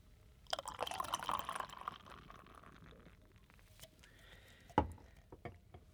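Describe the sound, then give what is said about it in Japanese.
Yebisu Premium Ale is poured into a glass in a short gurgling rush that settles into a fizzing trickle, followed by a single sharp clink near the end. Quiet, with no talking. “あの恵比寿プレミアムエールを選びたいと思いますありがとうございます、はい、それでは、えー、よろしいでしょうか、はい、ありがとうございます、はい、ではちょっと注がしていただきまして”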